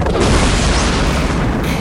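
A loud, sustained explosion boom fills the moment, a dense rumbling blast with heavy low-end roar that stays continuous for nearly two seconds, with no voices over it.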